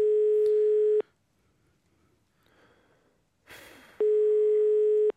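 A telephone ringback tone while calling a truck driver sounds twice: a steady, mid-pitched electronic tone lasting about a second, a long pause with faint rustling and a breathy noise, then the same tone again.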